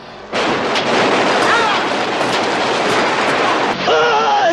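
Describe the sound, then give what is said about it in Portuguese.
A loud, relentless barrage of gunfire from a PlayStation 2 video game roars continuously for several seconds, with a man's voice shouting over the shots near the end. “Continue atirando!”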